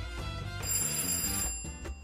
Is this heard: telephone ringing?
yes